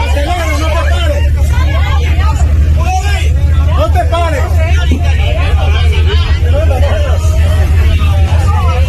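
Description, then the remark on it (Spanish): Many voices talk and shout over one another in an excited, tense jumble inside a bus passing a few metres from a roadside fire in the Mar de Ontígola Nature Reserve, with a steady low engine rumble beneath them. “Circulan algunos vídeos desde dentro del autobús como este, escuchad.”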